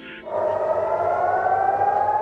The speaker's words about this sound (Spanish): Las sirenas siguen sonando día y noche en las principales ciudades israelíes.